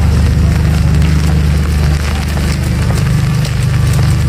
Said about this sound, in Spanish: Estamos en Glasgow, la tercera ciudad más grande del Reino Unido. Hoy chispea un poco, algo que tampoco sería noticia en este lugar en el que estamos callejeando, pero la ciudad, pese a la lluvia, está en plena transformación